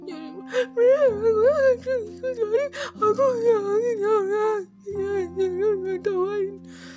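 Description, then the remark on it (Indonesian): An adult voice imitates a child crying while trying to talk and being angry, with wavering sobbing wails, quivering pitch and broken, irregular gasping breaths, fairly loud over a low sustained background tone. “Lalu akhirnya dia mulai bicara, tapi tidak jelas ku dengar karena bercampur dengan tangisan, isakan, serta nafas yang gak teratur.”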